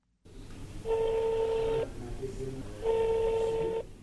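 A telephone being dialed in a crowded cafe in Antakya, Turkey, for a call to a brother in Syria: two steady, mid-pitched electronic tones, each lasting about a second and separated by a short pause, sound clearly over a low background murmur.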